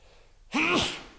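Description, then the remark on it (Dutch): A single sharp sneeze: a brief voiced intake that bursts into a loud, breathy blast, then fades quickly, with no talking around it. “Gezondheid. Dankjewel.”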